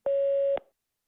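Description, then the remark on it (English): A single electronic voicemail beep, a steady mid-pitched tone held for about half a second with a slight click at its start and end, then silence. “If you'd like to pause the system to prepare, record after the tone.”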